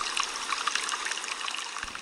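A stream trickles and burbles steadily, a bright, bubbly wash of running water close by, with no voices over it and no change across the short stretch.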